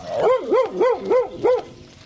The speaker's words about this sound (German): Da ist schon einer ganz wild drauf. Hm. Eigentlich ist das eine Hündin